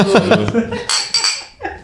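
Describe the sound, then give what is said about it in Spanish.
Voices and laughter at the start, then a few bright glass clinks ring out as people touch glasses together in a toast of 'salud' over alcoholic drinks, each clink leaving a short high ring. “Lo que sí nunca va a faltar es la salud. Salud, salud.”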